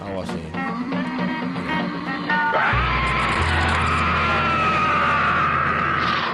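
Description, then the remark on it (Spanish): A voice lets out a loud, strained howl that swells into a roaring, wind-like scream, mixed with a rushing storm noise and a low rumble for several seconds: the hurricane-like hiccup-howl of Pepe Pótamo. “Fue lo más parecido a... El hipoaullido huracanado.”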